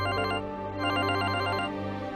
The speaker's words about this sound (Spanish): Era un martes por la noche cuando mi celular vibró al entrar la videollamada de mi primo.